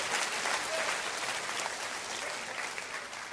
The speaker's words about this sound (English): Clap your hand for the word today. That's good stuff. That's good stuff.